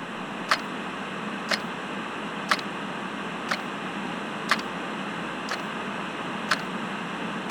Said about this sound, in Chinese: 他唯一记得的是墙上那个熟悉的声音，滴答，滴答，滴答。